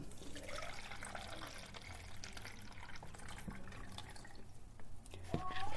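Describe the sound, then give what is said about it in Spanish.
Water from a large water jug pours steadily into a coffee maker, a continuous splashing trickle that runs for several seconds, with a brief louder clatter near the end. “Y ahora lo voy a colocar en la cafetera.”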